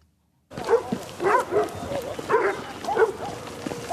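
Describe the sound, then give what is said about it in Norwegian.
Several dogs bark repeatedly in short bursts, warning that something is afoot, a few barks overlapping, with a steady outdoor background hiss and no talking. “Hundene varsler at noe er i gjære lenge før man kan se noe som helst.”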